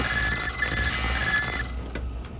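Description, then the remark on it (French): A purple telephone placed behind Thérèse rings with a loud, steady, high-pitched electronic trill that lasts about a second and a half before abruptly cutting off. No one speaks. “Le téléphone violet posé derrière Thérèse les coupe net dans leur conversation.”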